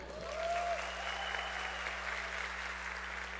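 Steady audience applause, a dense wash of many hands clapping at an even loudness for a few seconds, with a brief faint whistle-like tone near the start.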